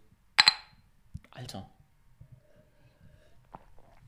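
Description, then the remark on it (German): A bright, ringing double clink of glasses knocking together in a toast, fairly loud, followed by quiet shuffling and faint low sounds of people. “Jetzt zögert mich das, jetzt ringe ich hier mit. Prost.”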